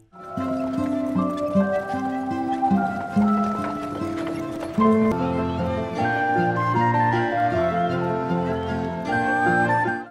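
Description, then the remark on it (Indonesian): Steady clip-clop of horse hooves pulling a carriage, an even rhythm running beneath a continuous swell of melodic music throughout. “Pinocchio pun galau mendengar perkataan Lusignolo akan tetap di sana untuk bersekolah atau ikut Lusignolo ke negeri mainan dan Pinocchio pun memutuskan naik kereta kuda tersebut.”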